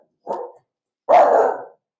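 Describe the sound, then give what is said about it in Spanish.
Two loud barks from a dog, a short one followed by a longer, harsher one after a brief pause, with silence around them. “alerta de perros, alerta de perros, alerta de perros.”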